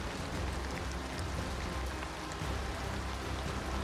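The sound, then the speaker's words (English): Steady rain patters down in a dense, even hiss, with water running continuously underneath. The wash stays at a constant moderate level throughout, with no voices. “Um, the rain subsiding with water still flowing”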